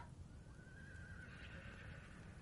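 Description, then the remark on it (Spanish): A horse neighs with a long, wavering whinny that rises and holds, heard over a dense low rumble of background noise. No one speaks. “¿Puede alguien ir a ver qué les pasa a los caballos?”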